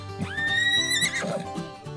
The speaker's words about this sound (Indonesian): kuda menyapa